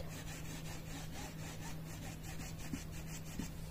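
A brush rubs steadily against a surface in repeated scratchy strokes, quiet, with a faint low hum in the background and no one talking.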